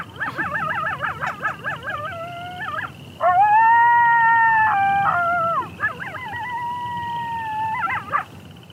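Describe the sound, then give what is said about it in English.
A chorus of coyotes yipping and howling together outdoors, overlapping wavering cries rising into a loud sustained howl, then more quavering yips trailing off, with no talking. “So that group Yip Howl is sent up when coyotes reunite or just before they separate to go off hunting individually.”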